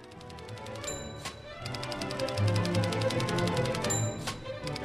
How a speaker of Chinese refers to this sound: 第一件要说的是，十九世纪美国的办公大楼中处处传出打字机的声音。美国作曲家、指挥家安德森就是从打字机富有节奏的音响中获得了灵感。